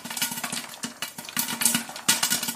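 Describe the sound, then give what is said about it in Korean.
Popcorn popping in a machine: a dense, steady crackle of countless quick pops, almost like heavy rain, over a low motor hum, continuous throughout. “아, 팝콘, 팝콘을 지금 튀기고 있어요.”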